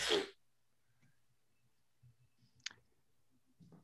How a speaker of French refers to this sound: Fait que faut que je lance, c'est ça, faut que je lance deux dés.